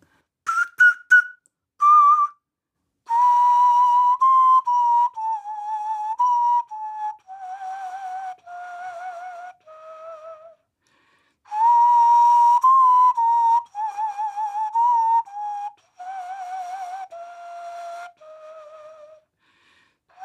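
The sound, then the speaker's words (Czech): Hollow, breathy notes blown across a water-filled beer bottle, including chromatic tones, form a slow melody that steps downward in two phrases, each held tone wavering slightly, with no talking. “Takže se zaposlouchejte, co všechno jde vytvořit eh, na láhev od piva naplněnou vodou.”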